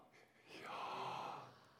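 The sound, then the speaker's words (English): A sharp, drawn-in breath, a breathy rush that swells over about a second and then eases off, with a faint voiced tone inside the inhale as the person says "Yah" while breathing in. “I want you to breathe in, and as you're breathing in, say Yah.”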